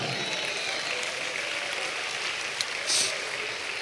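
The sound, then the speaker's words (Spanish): An audience claps steadily, giving applause to God during a sermon, in a dense, continuous wash of applause that fills the whole stretch, with no talking over it. “¿Cuántos dan un aplauso a Dios, amado hermano?”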